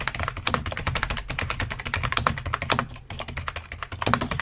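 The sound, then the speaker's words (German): Rapid, continuous typing on a Cherry G83 office computer keyboard with rubber-dome block keys, dense clattering keystrokes with a steady busy rhythm, fairly loud, with no voices. “Das ist beispielsweise die Cherry G83. Das ist so eine typische Bü Bürotastatur. Hier, mal hören.”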